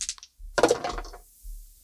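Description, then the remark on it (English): A couple of faint clicks, then percentile dice clatter and tumble across a hard tabletop in a short rattling burst that quickly settles. The sound is moderately loud, with no voices. “would someone mind rolling a percentile for me? I don't have my dice right here.”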